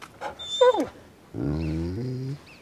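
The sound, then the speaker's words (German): A dog lets out a brief high, falling whine, then a loud, close, drawn-out roaring growl lasting about a second, with no one talking. “Du kannst mich noch so sehr anbrüllen. Du machst mir keine Angst.”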